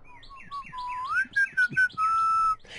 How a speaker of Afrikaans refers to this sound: Dit was ook nie hoe te lank nie of Mani Muur hoor iemand al fluitende in die veldpaadjie aangestap kom.